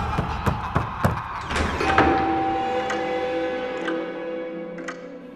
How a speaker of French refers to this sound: Il y a une porte dérobée par ici. Vite